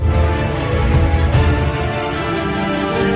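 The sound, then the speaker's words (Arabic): Dense, sustained background music plays alone at steady loudness, with layered tones and a deep low end giving a spacey, ambient feel and no pauses or voices; it signals a segment about space. “الا انه لما تسمع هذا الصوت او الموسيقى اللي في الخلفيه معناته أننا نتكلم عن الفضاء نعم الفضاء”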